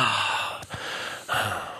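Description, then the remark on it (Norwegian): Loud, breathy gasping from a pop song, with two sharp intakes of breath close together over a hissy, airy musical backdrop; no one speaks. “Nei, og du, den pustinga du snakker om, det er i så fall det er snakk om den pustinga her.”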